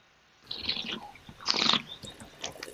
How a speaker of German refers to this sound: das Schlürfen vom Wein. Und da passiert das ganz Tolle, dass der Wein natürlich dann plötzlich durch den Gaumen hinter wieder an das Riechepithel hochkommt, an die Nase.